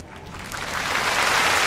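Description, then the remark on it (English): A canned applause track: dense, crackling clapping that swells steadily louder over a couple of seconds and holds at full volume, with no voices over it. “Ooh, clap track.”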